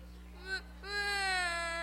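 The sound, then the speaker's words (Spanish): Children fake crying, pretending to mourn Tabitha in a Bible story, in high, wavering wails: a short rising whimper, then a longer, louder sustained sob that slowly falls in pitch, over a low steady hum. “Como fingiendo que están llorando. Ay. Pero lloren con ganas.”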